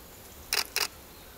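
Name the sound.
camera shutter clicking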